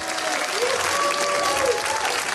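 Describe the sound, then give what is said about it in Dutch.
An audience in a hall at the final day of a student innovation competition in the 3M building in Delft claps steadily, a dense, sustained wash of applause with a few whoops and cheers rising above it. “Laten we eens even luisteren hoe het er in de zaal voor staat, waar die scholieren straks nog een laatste pitch mogen gaan doen.”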